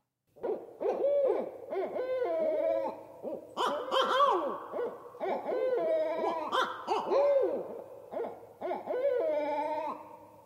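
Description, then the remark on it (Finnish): Barred owl hooting and cackling in a loud, continuous chorus of rising and falling calls, with several wavering, laughing hoots overlapping throughout. “No, kuunnelkaapa miltä tämä Amerikan viirupöllö kuulostaa?”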